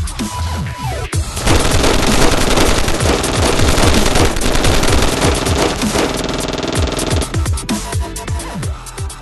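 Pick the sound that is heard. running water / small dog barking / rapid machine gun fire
rapid machine gun fire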